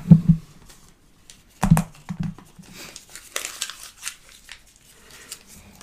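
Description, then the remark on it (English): Paper ballots for a secret vote being crumpled: sharp crackling bursts at the start and again partway through, followed by softer, irregular crinkling that continues to the end, with no voices. “We don't have to crumple Just to up. annoy the person who has to roll.”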